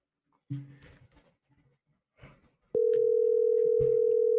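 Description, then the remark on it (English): A few clicks and handling noises, then a loud, steady telephone dial tone starts suddenly and holds unbroken to the end, with a brief thump partway through. The tone comes while a caller is being redialed after a dropped call. “we got some technical difficulties. Let me bring let me bring Brian back up on the or Tim back up on the phone”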